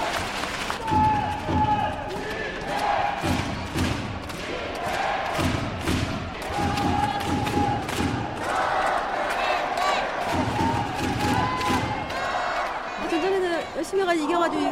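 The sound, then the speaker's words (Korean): A large indoor crowd of basketball fans, many of them families, claps and cheers steadily throughout at a basketball game, with dense overlapping applause, shouts and chatter, all loud, while an amplified voice talks over the noise. “우리 선수에게 경례 박수 부탁드리겠습니다.”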